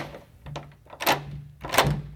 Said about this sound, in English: I grabbed the handle to the room's front door, flipped over the deadbolt, and cracked it open.